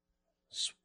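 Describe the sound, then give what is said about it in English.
A woman gives a single short sneeze during a Bible sermon, a sharp hissy puff that fades within a fraction of a second, heard faintly with no talking around it. “bless you, sister.”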